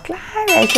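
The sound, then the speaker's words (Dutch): A knife used for cutting frozen bread is slammed down onto a hard surface, giving a single sharp metallic clink that rings briefly while a person keeps talking over it. “Oh, dat klinkt zo mooi, hè, dat mes dat ik zo neer, neerknal.”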